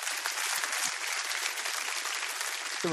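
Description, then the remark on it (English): Steady audience applause fills the whole stretch, a dense, even wash of many hands clapping at once, fairly loud, with no voices rising above it. “And to that, he gets a, gets applause.”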